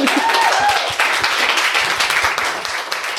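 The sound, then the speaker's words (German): Steady audience applause at a talk, applauding that Sanity Group has 53 percent women employees: a dense crackle of many hands clapping at once, loud and continuous for a few seconds with a brief whistle-like tone near the start. “Das ist schon ein Applaus wert, oder?”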